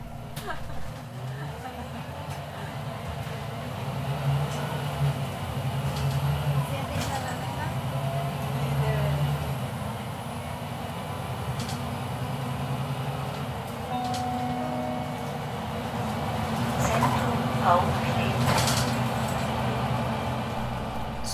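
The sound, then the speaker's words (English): Inside a moving number 12 city bus in Bern, Switzerland, riding toward the Zentrum Paul Klee: a steady low engine rumble and road drone fill the ride, with occasional rattles and clunks and faint murmuring voices in the background. “So let's jump on the number 12 ZPK and ride the bus into the rolling hills overlooking the Bernese Highway.”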